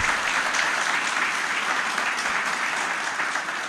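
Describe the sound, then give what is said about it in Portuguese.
Sustained applause from an audience thanking God for the musicians, a dense, steady wash of clapping hands that holds at an even loudness for several seconds before easing slightly at the end. No one speaks over it. “Então traduza a sua gratidão em palmas.”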